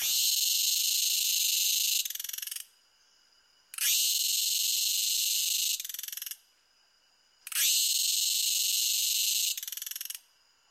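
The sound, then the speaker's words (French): A cicada's loud, harsh buzzing song, made by two small plates called cymbals at the start of its abdomen, rings out in three sustained bursts of about two seconds each, separated by short pauses, steady with no voices. “Leur son est produit par deux petites plaquettes qui se trouvent au début de l'abdomen, auxquelles on a donné le nom de cymbales, et le son produit par ces cymbales, c'est une cymbalisation.”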